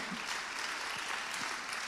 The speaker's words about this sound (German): Falls ihr am Livestream seid, hier ist gerade ein mächtiger Applaus für euch.